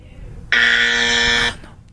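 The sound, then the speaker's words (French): A loud quiz game buzzer, pressed by a contestant, sounds once, a steady harmonic electronic tone lasting about a second with an abrupt start and cutoff, over faint background noise. “J'ai entendu ton, avertisseur sonore.”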